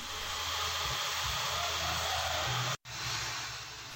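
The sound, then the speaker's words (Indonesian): An electric sander runs steadily, smoothing the surface of teak wood for making wooden eyeglass frames at Pasar Banjar Dowo Baru, Semarang, Central Java, a loud continuous whirring hiss over a low motor drone, briefly cutting out for an instant before resuming. “sedang menghaluskan permukaan kayu jati dengan mesin amplas.”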